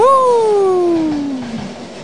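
A train passes, its loud horn tone sliding steadily downward in pitch as it goes, over a broad rushing rumble that slowly fades.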